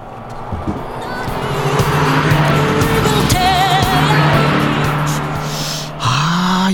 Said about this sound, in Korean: 자, 달립니다. 옆에 차 지나갈 거예요. 옆차에서 어떤 노래 듣고 있을지 들어볼까요?